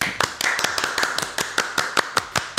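Brief applause for a poem that was just read: a quick, fairly steady run of sharp, crisp hand claps, roughly a dozen or more in a couple of seconds, sounding like just one or a few people, with no talking.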